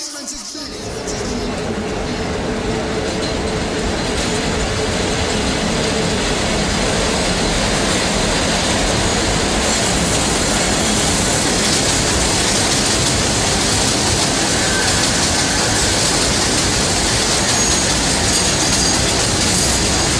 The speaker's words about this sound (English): express train. Express train. The next and last the next stop is New Lots Avenue. New Lots Avenue.